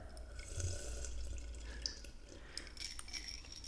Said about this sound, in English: It was almost the last sip.